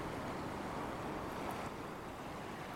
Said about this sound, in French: Des éclaboussures d'eau touchent tes cheveux, ton visage.